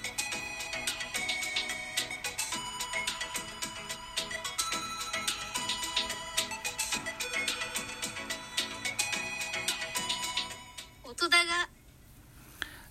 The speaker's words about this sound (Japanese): はい、これが音高のジングルでございます。